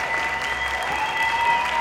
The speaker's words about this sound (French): Quelques heures plus tard, la pièce est enfin terminée et toute la cour est debout pour applaudir chaleureusement les acteurs. La salle est remplie de cris de joie et d'applaudissements enthousiastes.